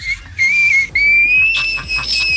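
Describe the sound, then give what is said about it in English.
A frog from the Netherlands gives a high, pure whistling call in two long sustained notes, the second rising slightly and holding steady, loud over a low background rumble, with no one speaking. “It's a frog that sings like ….”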